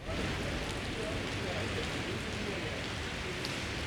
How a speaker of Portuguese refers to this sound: Como a gente pode perceber, está chovendo nesse momento.